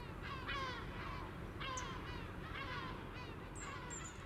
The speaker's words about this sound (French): Il n'y a plus que le port maritime qui est omniprésent, ce bruit de fond que les mouettes viennent parfois sublimer. Leur chant si unique est tout simplement universel.